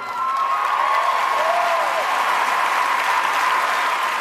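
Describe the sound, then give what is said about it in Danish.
Sustained audience applause after a speech at the Grammys fills the whole stretch, a dense steady wash of clapping from a large crowd, loud and even, with faint cheering and voices mixed in. “Ja, han når lige at sige but efter klapsalven, og det folk klapper af, det er, at vi her hører”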